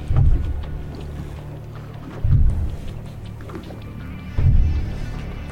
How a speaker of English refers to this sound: That's a that's a charter head boat. Yeah, that's loud. You can hear it from here.